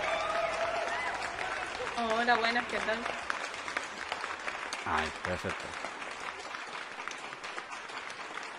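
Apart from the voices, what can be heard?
applause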